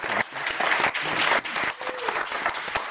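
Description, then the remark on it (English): An audience at the Commonwealth Club of California applauds the panel speakers steadily, a dense crackle of many hands clapping together at a fairly loud, even level for the full three seconds, with no one speaking over it. “So let's give our speakers another round of applause.”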